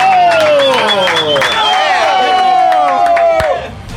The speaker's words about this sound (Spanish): Oye, güey, esos aplausos se oyen muy falsos